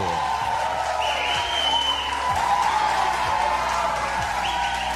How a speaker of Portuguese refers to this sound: Aplausos para o Brasil com um milhão e meio de novos empregos só este ano. Mais aplausos, mais, mais, mais, mais aplausos para o Brasil.